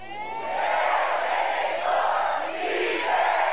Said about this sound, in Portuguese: Eu quero ouvir um grito aqui forte.